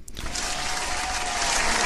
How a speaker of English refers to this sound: There's that applause we love.